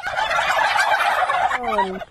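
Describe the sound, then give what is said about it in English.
A loud, dense chorus of a flock of turkeys gobbling together in a rapid, rattling burst after pecking a TV reporter, ending with one clearer, drawn-out call before it cuts off. “All these turkeys think it's pretty hilarious.”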